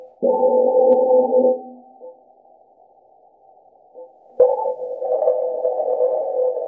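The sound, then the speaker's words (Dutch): Wind recorded on Mars: a low, droning, slightly tonal whoosh that swells loudly, fades to a faint hum, then surges back abruptly and keeps blowing steadily. No voices. “Wij zitten hier nu op aarde te luisteren naar de wind op Mars.”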